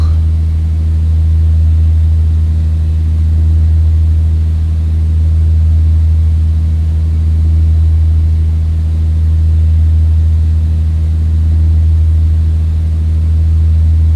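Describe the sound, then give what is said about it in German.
A steady, loud airplane engine drone from a flight simulator game as the plane lands at Olomouc, a deep continuous hum with a faint pulsing quality that holds unchanged throughout, with no voices. “Reifen raus mit Steuerung G und man hört es dann auch, die äh, Maschine wird vom Motorsound her ruhiger und dann mit dem Pfeil nach oben die Nase wieder bewegen.”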